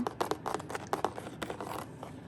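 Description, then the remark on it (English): Crisp rustling and flicking of paper as a blank notebook used as a show prop is handled, with quick irregular page sounds and soft scrapes throughout, no voices. “This book makes a lot of really nice sounds. It's just a, a blank notebook.”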